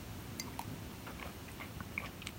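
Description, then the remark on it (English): Quiet mouth sounds of someone drinking water: a series of soft wet clicks and small gulps spread irregularly over a couple of seconds, with a slightly sharper one at the end. No talking. “Sorry, drinking some water.”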